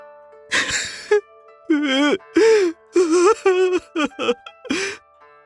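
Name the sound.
person crying and sobbing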